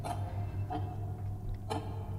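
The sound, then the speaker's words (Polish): A few uneven ticks, like a broken clock, sound over a steady low hum. Three sharp clicks arrive at irregular intervals, with a longer gap before the last one. “Nagle zaczynacie słyszeć cykanie, takie jakby cykanie zegarka, ale bardzo niejednostajne. Jakby bardzo zepsuty zegarek. Raz cyka szybciej, raz wolniej, czasami przestaje.”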